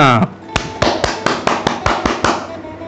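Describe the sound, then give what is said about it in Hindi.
Loud clapping: a steady run of about nine sharp, evenly spaced claps, each bright and crisp, following a brief voice at the start, applauding the announced winner on I Radio. “इनके लिए जोरदार तालियां”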